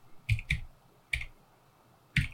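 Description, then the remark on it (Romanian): Four sharp, hollow clicks of a computer keyboard and mouse, tapped at an uneven pace with short gaps between them, during play of the video game Grim Dawn. Fairly quiet, with no talking. “Așa că auziți numai, numai periferice clâncănind.”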